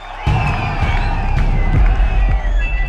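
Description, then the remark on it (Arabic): A large crowd of protesters shouts and cheers in a continuous, loud roar of overlapping voices while surrounding the gate of a large villa, the KGB building, and shaking its iron gate to topple it, with sharper yells and whoops rising above the din and low thuds pulsing underneath throughout. “المتظاهرين بيحاوطوا بوابة الفيلا الكبيرة وبهزوا الباب الحديدي عشان يوقعوه”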